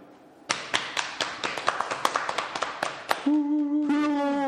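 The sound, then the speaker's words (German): A quick, uneven run of dull knocks on cardboard, more than a dozen sharp taps over about three seconds, followed by a steady hummed voice tone that rises at the end. “Ich glaube auch nicht, dass wir, wir klopfen mal eben auf Karton.”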